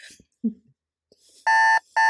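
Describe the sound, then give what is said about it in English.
A loud, harsh electronic alarm buzzer, a 'hope alarm' set off because someone said 'hopeful', blares twice, a longer blast followed by a second one cut short, after a few faint, brief thumps and rustles. “means you need the hope alarm.”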